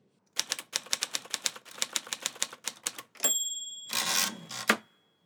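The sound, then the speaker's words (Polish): Crisp keystrokes of a manual typewriter inherited from a grandmother clatter in a quick irregular run as texts are typed, then a ringing bell chimes and the carriage slides back with a rasping sweep, ending in a hard clunk. “Mam maszynę po babci, właśnie na niej swoje główne teksty przygotowuję.”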